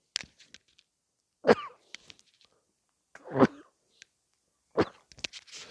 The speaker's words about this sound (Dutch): Sorry, we gaan gewoon door. Want anders moet ik het hele stuk weer opnieuw opnemen. Daar heb ik eigenlijk eh, geen zin in. Dus excuus voor deze uh, niespartij.